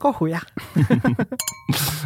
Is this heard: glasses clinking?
yes